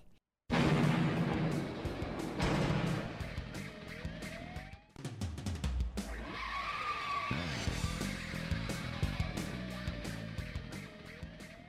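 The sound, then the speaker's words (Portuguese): Loud tires skidding and squealing over roaring car engines, with sliding pitch sweeps and crashes in a busy car-combat video game with souped-up cars, continuous, no speech. “Que é um jogo de carro. E são carros né, envenenados, que tem.”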